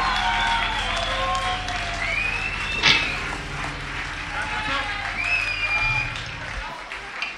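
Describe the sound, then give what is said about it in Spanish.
A live concert crowd in Madrid applauds steadily throughout, a dense roar of clapping with shouts and sharp whistles rising above it, plus a brief loud thump near the middle. “Un aplauso a”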